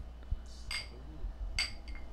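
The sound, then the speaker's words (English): Two bright glass clinks about a second apart, each with a short ringing tone, over a low background rumble, like glasses touched together in a toast. “Cheers, guys, before we get yeah. started.”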